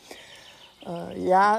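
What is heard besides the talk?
birds singing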